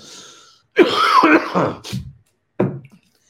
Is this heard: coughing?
yes